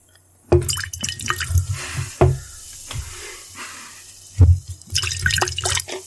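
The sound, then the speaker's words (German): Liquid is poured into a container in several uneven, splashy bursts with drips and gurgles between them, fairly loud, with no voices. “Warte, damit Leute machen ASMR. Okay. Ein Schütz-Sound.”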